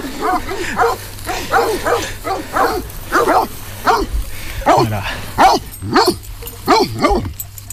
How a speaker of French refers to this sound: Donc c'est un patou.